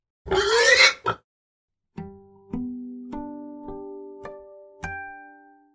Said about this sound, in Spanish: Pig.